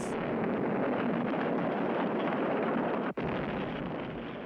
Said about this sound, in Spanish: En este fragmento escuchamos el sonido repetido de la explosión de la mansión que se funde con la música